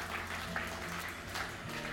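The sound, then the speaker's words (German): A crowd at a church service claps steadily after a prayer, a dense patter of many hands blending into a continuous, even wash of applause with no voices standing out. “Hey, lass uns mal einen Applaus geben, falls es jemand gebetet hat.”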